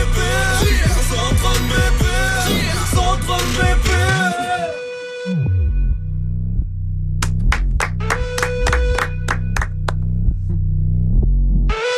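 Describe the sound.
A French rap track plays loudly on the radio station Move, with a rapping vocal over deep, booming bass; the second half thins to sharp, rhythmic clap-like hits punctuating the beat.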